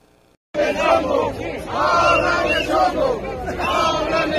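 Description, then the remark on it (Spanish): A large protest crowd arriving at the National Assembly chants slogans in unison, loud, with rhythmic rising and falling phrases repeating every second or so over a dense roar of many voices. “Pero escuchemos las consignas con las que llegaron ayer hasta la Asamblea Nacional.”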